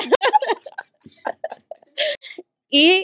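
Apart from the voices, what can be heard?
sneeze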